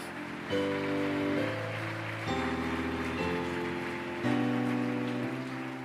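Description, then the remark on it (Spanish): A church audience applauds the Lord in a steady, dense wash of clapping, with sustained keyboard chords shifting underneath for about six seconds and no one talking. “Si lo crees, dale un fuerte aplauso al Señor.”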